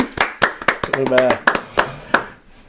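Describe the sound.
Scattered applause from a small group: about a dozen sharp, uneven handclaps that thin out toward the end, with a short voiced whoop or cheer rising over the clapping midway.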